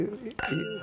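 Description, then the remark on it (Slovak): Wine glasses clink once in a toast at a summer discussion over wine, a bright ring that lingers briefly while voices keep talking underneath. “Na zdravie.”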